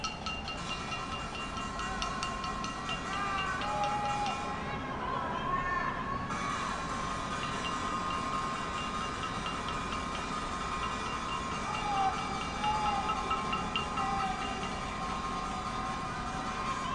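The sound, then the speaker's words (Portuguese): Pots and pans clang steadily from many apartment balconies at once in a pot-banging protest during the first months of the pandemic, a dense, echoing clatter that never lets up, with voices shouting and calling out through the din. “No fim de um dos panelaços, algumas vizinhas aproveitaram e gritaram uns para as outras ali pelas varandas e conseguiram puxar um Pai Nosso que deu para ouvir daqui do outro quarteirão.”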